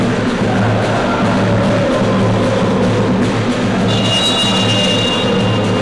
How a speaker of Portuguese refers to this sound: Você ouve que a galera do samba tá animada. Olha só como a galera vem cantando.